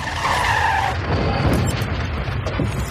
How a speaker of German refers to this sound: Lassen Sie sofort los! Der Wagen kommt ins Schlingern. Ich habe nicht mal gesehen, dass da Gegenverkehr war. Zeitlupe. Der uralte VW Jetta schießt frontal in den Ford C-Max